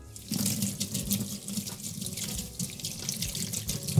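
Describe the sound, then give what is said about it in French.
Tap water runs steadily into a sink, a continuous splashing with slight variations as a small bunch of fresh coriander is rinsed under the stream. No one speaks. “Et on va ensuite rincer notre petit bouquet de coriandre.”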